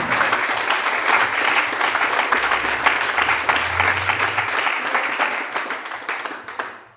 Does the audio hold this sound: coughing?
no